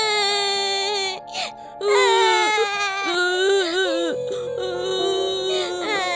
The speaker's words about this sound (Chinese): 朋友们听到这个消息，一个个都哭了起来。